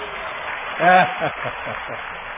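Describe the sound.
An audience at a church service applauds for someone's birthday, with steady, dense clapping throughout. A brief high voice rises above it near the start.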